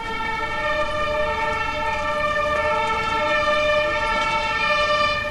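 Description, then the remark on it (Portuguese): A fire engine siren, responding to a fire at the cultural centre on Rua Coronel Pedro Benedetti in central Criciúma on the morning of 10 September 2017, blares in a loud, steady, continuous tone, holding one harsh pitch without rising or falling, filling the whole stretch, with no voices. “Na manhã de 10 de setembro de 2017, os bombeiros foram acionados para atender uma ocorrência na rua Coronel Pedro Benedetti, no centro de Criciúma.”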